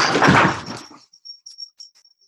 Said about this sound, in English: Sorry, that was my dog knocking over something.